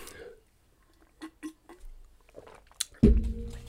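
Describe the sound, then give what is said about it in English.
Wet mouth sounds of someone sipping and swallowing water, a few soft gulps and clicks in quiet, followed by a sudden louder burst at the end. “And I'll have another sip of my delicious water.”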